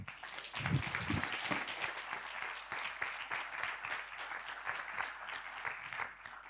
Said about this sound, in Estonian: teeme aplausi.